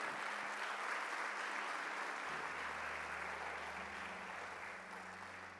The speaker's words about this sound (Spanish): ¿Cuánto le dan un aplauso al Señor esta mañana?